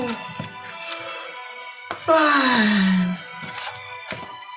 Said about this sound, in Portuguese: Fazendo uma respiração profunda.